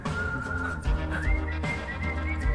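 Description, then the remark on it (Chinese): A clear whistled melody, whistled by the song's own singer during the song's interlude, glides and holds steady high notes over the instrumental backing, with a thumping low beat underneath and no voices. “这是你自己吹的口哨吗？”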